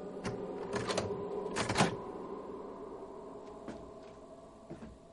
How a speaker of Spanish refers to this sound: Ella se acerca a una puerta. Agarra el picaporte y lo gira.